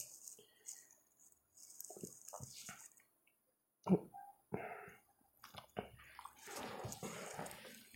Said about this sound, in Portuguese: Esse foi um, uma pausa um pouco mais longa porque eu acabei de me servir mais de uma cuia. Talvez vocês ouçam barulho de eu enchendo a cuia, talvez não.